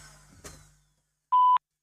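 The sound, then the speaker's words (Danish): A single loud, steady electronic voicemail beep lasting about a quarter second, signalling the start of recording a message, following a brief trailing noise and a moment of silence. “Ja, ah, så stiller jeg lægger en besked. efter tonen.”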